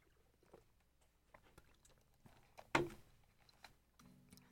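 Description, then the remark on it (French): A small sip of water: faint wet mouth clicks and lip sounds, then one sharper gulp or clink partway through, with no talking. “prendre une petite gorgée d'eau?”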